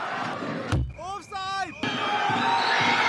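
A loud football crowd of Ljubljana fans roars in a dense, steady wash of noise after their team's equalizing goal to 1–1 in the 80th minute, broken briefly by a heavy thump and a moment of rising and falling whoops before the roar surges back.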